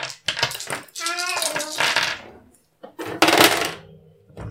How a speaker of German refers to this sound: Okay, dann musst du drum würfeln. Mit ja. deinen vier Würfeln, Schwierigkeit 10. Ich würfel, würfel, würfel.